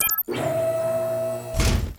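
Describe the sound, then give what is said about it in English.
A steady mechanical whir runs for over a second as the doors open, ending in a single heavy thunk. No one speaks. “Now, open the doors, please.”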